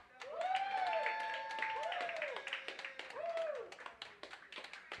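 A crowd claps steadily and densely for about five seconds, with loud rising-and-falling whoops and cheers riding over the applause before the clapping thins out toward the end.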